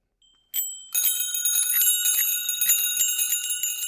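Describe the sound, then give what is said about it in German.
Bright, metallic bicycle bell rings during a test of many bicycle bells: a single ding, then a rapid, continuous trill of ringing that carries on steadily and loudly, with no talking. “laut Straßenverkehrsordnung sollte nämlich eine Fahrradklingel einen hellklingenden, kräftigen Ton haben”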